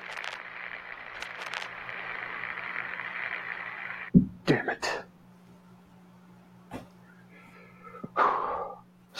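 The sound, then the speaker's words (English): A long, heavy breath rasps steadily for about four seconds over a low electronic hum, followed by a few short, sharp bursts of noise and a softer breathy sound near the end. “does a lot of deep breathing.”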